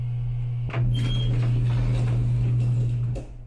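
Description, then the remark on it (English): Elevator doors slide open over a steady low motor hum in a downtown condo building at 5:30 in the morning in March, beginning with a soft clunk and ending with a brief bump as the mechanical whir cuts off. “The elevator doors opened to a long hallway that seemed to go on into infinity.”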